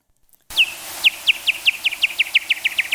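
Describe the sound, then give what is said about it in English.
A rapid train of bat echolocation calls from a bat detector that slows the sound down tenfold, a dozen or so sharp descending chirps repeating at a quickening, steady rhythm, clear and fairly loud with no talking. “so those, those kinds of sounds are actual back calls that have been slowed down 10 times.”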